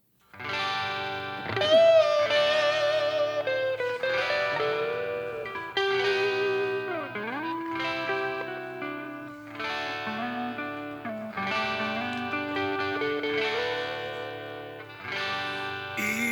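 A rock song from the film Radio Star plays on a radio show, beginning after a brief moment of quiet, with distorted, effects-laden electric guitar playing a steady melodic line at a loud, even level, with no singing yet.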